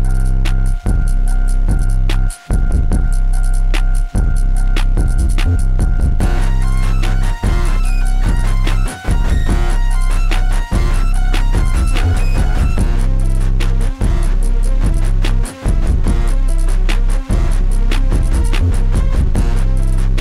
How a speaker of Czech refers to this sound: track, který má takový jako neurotický beat a ozývají se tam takový jako zvláštní ruchy a šumy. Je to vlastně něčem trochu jako nepříjemný, ale, uh, ale moc se těším na to album.